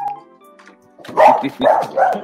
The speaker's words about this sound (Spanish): Papo o Mau continúen porque mi perrita Lola está vuelta loca